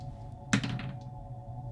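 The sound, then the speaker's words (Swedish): Dice are rolled during a tabletop role-playing game: one quiet knock as they land, a brief soft rattle as they settle, then stillness over a steady low hum. No one speaks. “Men jag kan slå ändå för skojs skull.”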